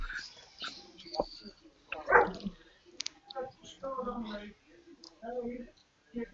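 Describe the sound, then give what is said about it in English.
A dog barks a few times, short sharp yelps with a whimper among them, mixed in with people talking in the background. “I apologize sorry for something in the barking as well.”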